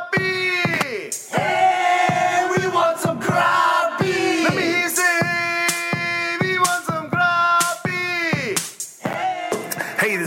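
A large crowd shouts the rhythmic chant "Hey, we want some grub!" in response, in loud, repeated bursts, many voices in unison with short breaks between phrases, energetic throughout.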